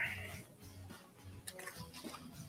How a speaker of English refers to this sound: Uh, so this is a nice fish, another nice slot fish. We've been getting some quality fish today, beautifully colored. And uh, let's get it back in the water.